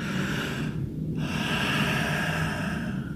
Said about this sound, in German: ein tiefer Atemzug. Ich nehme Luft, das ist der erste, was passiert. Ich nehme was. Es atmet nicht aus.